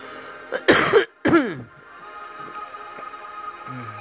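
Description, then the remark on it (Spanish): Harsh coughing in two loud bursts after a brief catch, the last one trailing into a rough, throaty clearing, then quiet room tone. “Oye, se me... la garganta.”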